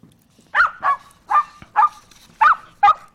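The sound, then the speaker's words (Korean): A small, cute puppy barks six times in a steady rhythm, sharp and high-pitched yips, with no one talking. “귀여운 강아지가 짖는 소리입니다.”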